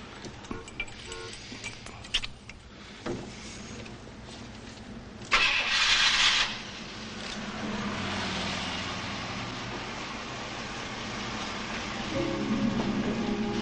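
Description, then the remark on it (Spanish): A car engine starts as a woman gets into her car: a few scattered clunks, then a loud, harsh burst of cranking that catches into a steady, low rumbling idle, which swells slightly toward the end. “Emma monta en su coche.”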